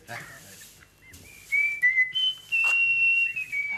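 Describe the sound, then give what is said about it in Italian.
A blackbird whistles a few clear, high notes, each held steady then stepping down or sliding in pitch, with a brief pause between phrases over a faint background murmur. “Nessuno, il merlo è stato.”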